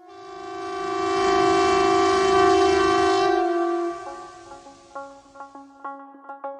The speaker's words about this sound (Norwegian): Dette er lyden av den såkalte flyalarmen, og den har ult hver andre onsdag i januar og i juni i mange, mange år.